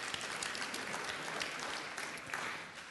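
A crowd claps steadily for a few seconds in thanks to a woman who arranged the flowers, a dense, continuous patter of many hands at moderate volume, with no voices over it.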